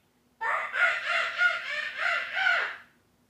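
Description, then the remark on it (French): A woman imitates the call of a small marmoset, a shrill, warbling squeal that rises and falls in four or five quick pulses over about two seconds, fairly loud, with no talking. “Puis là, ma blonde va vous faire un, un le son d'un petit whistiti.”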